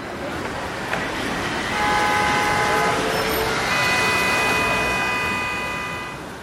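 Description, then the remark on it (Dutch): Busy city street traffic rumbles steadily while loud, sustained horn blasts sound, one after another, dominating the noise for several seconds. “Auto's, bellende mensen, muziek, overkomende vliegtuigen, trams.”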